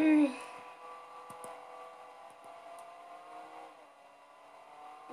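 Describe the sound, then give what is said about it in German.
A video game car that has just spawned idles and revs in a steady, droning hum, opening with a brief louder burst, with a few faint clicks scattered over the continuous rumble. “Das ist ein schönes Auto spawn. Ich finde das nice, das Auto.”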